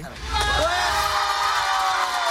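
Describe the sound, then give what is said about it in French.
A studio audience in the Fréquence Plus radio station's public studio cheers loudly and steadily, a dense wash of shouts and whoops that swells in the first half-second and holds at full volume throughout. “Et d'ailleurs, le public, vous êtes prêts”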